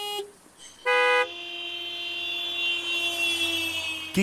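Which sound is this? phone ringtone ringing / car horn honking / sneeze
car horn honking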